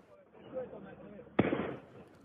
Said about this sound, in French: Sur cette vidéo, on entend les tirs de mortier d'artifice et les cocktails Molotov tirés par des jeunes cagoulés.